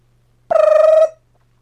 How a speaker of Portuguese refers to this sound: E aí toca o. Toca um negocinho lá. Ting! E aí antes de começar a luta. Esse... É, essa é a função do alarme, cara o alarme toca.